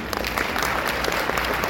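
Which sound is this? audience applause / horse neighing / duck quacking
audience applause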